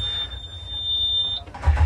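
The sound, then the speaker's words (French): A steady high-pitched warning buzz holds for over a second as the key is turned, then cuts off as a lake-water-cooled boat engine cranks and catches with a loud, low rumble. “On met le moteur en route pour commencer. Donc euh, on tourne la clé.”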